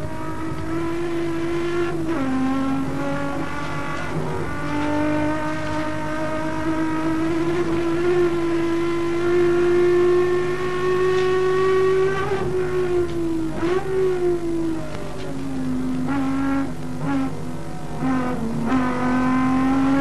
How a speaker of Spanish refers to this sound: la última curva y escuchen ahora la trepada del motor en la recta principal.